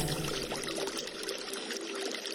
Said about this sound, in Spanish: Escucho el sonido del agua al chocar entre piedras y caer en cascadas Las gotas salpican mi piel ardiente y me llenan de placer.